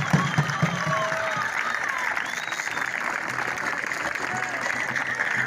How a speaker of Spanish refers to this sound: Así que, compañeros, un aplauso grande para nuestro conductor.